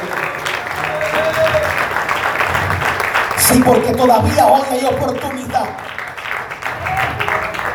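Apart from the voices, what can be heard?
audience applause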